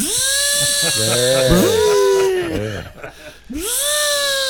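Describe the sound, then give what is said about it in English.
A voice imitates a truck stuck in mud, making loud whining engine-rev sounds that rise and fall in pitch, with a brief pause before a final straining burst. “then I hear the sound of a truck stuck in mud.”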